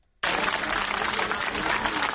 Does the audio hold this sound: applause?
yes